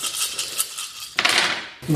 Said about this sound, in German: So, dann habe ich ein bisschen mehr zu würfeln.